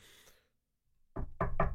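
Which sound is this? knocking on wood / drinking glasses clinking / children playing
knocking on wood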